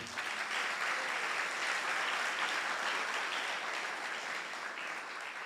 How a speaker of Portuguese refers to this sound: Vamos dar uma salva de palmas para o Senhor.